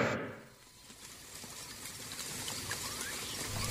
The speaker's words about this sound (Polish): Jak zwykle ten sam las, w którym pada nieustannie deszcz.